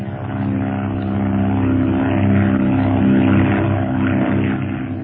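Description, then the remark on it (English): A propeller plane's engine drones steadily and loudly throughout as the plane climbs in a cloud, a continuous rumble with a strong low hum and rough mechanical texture. “how can I from a plane like this?”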